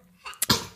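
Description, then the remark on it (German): A single sneeze: a short rising intake of breath, then a sharp, explosive burst that trails off quickly. No one speaks. “Gesundheit.”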